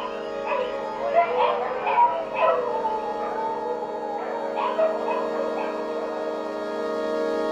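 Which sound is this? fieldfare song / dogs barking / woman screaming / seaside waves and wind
dogs barking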